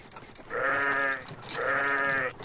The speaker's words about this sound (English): look out for that big black sheep!